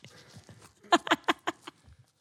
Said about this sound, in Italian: Fai sentire un attimo il suono dello spazzolino da denti.